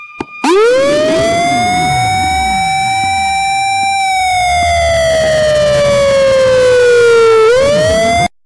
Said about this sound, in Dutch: Nu volgt de sirene, die luidt omdat de sirene die u daarvoor gehoord heeft per ongeluk is afgegaan.